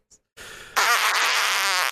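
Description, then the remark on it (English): A loud, wet, sputtering fart sound that starts softly, then bursts into a long, flapping blast of about a second and a half before cutting off abruptly, with no talking. “wet fart.”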